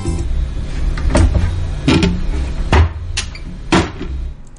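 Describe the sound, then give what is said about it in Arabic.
A kitchen cupboard door being handled, with several sharp knocks and thuds spaced about a second apart over a low rumbling background, plus faint creaks between them. Nobody speaks. “كأنه صوت دولاب حق مطبخ انثبتها؟”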